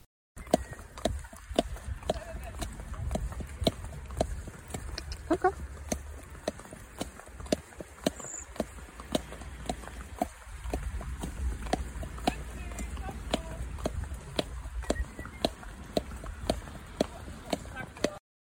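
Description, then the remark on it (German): Hoofbeats of a horse near the end of a riding course thud in a steady, even rhythm throughout, each footfall crisp and moderately loud over a constant low background rumble, revealing a regular gait. “Und hier das gleiche Pferd gegen Ende des Kurses.”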